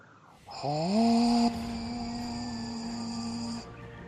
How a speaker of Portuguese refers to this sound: tu reconhece esse som. Esse som é de uma trupe de Black Orcs. Uma trupe de ah. orcs negros. Tu sabe que eles são tipo a cavalaria do, dos orcs, sabe? E eles são muito barulhentos.